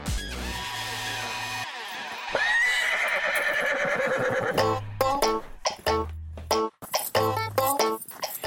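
horse neighing

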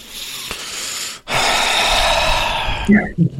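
deep breath in

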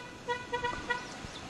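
car passing by

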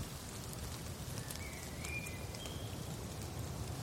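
rain falling

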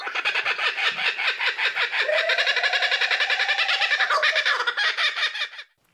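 birds calling

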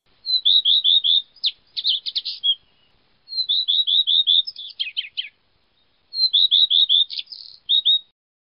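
common redstart song

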